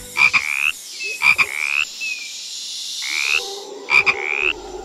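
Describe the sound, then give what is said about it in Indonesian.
Sam the frog croaks in a steady series of four loud, raspy calls with short pauses between them, with no voices present. “Landi dan kuku si kura-kura pun memberikan selamat ulang tahun kepada Sam si kodok.”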